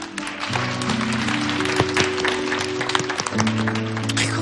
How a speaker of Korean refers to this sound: 박수 다시 한번 부탁드리면 좋겠습니다.